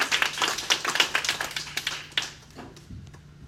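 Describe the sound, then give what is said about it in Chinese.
An audience applauds to thank the speaker after her talk, with dense, overlapping claps for about two seconds, then the clapping thins out into a few scattered claps and fades. There is no talking. “请延续掌声，感谢我们美丽大方的那个主讲者哈”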